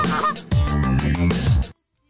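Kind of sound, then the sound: bird, goose honking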